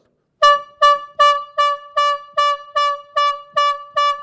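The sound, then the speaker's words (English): A trumpet sounds ten short, bright staccato blasts in a steady, quick rhythm, each one sharp and loud, forming a clipped alarm call with nothing else audible. “a staccato blast, a variegated blast. There's an alarm.”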